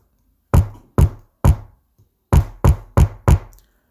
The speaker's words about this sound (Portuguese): Novamente, mais batidas.